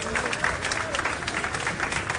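A large crowd applauds steadily at the Diego Armando Maradona stadium of Argentinos Juniors as a tribute to Maradona, a dense, continuous wash of clapping that holds at a fairly even loudness throughout, with faint voices blended into the noise.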